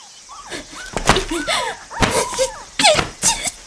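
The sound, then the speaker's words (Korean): Several small puppies yelp and squeal in high, frantic bursts, their cries overlapping, broken up by sharp knocks and clattering thumps, as a small thin woman overturns their box and they are flung to the floor. “강아지가 자지러지듯 깽깽 하는 소리가 들렸다.”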